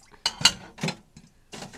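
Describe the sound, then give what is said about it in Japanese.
Dishes and cutlery clink and rattle in a few short bursts, with bright metallic chinks standing out, as chopsticks are washed with Happy Elephant grapefruit-scented dish soap, like utensils being scrubbed and set down at a sink. “今ねお箸を洗っておりますあのー、この香りだけでねもともと食器洗うの嫌いじゃないんですけど倍楽しくなるという”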